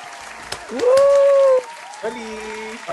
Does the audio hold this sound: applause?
yes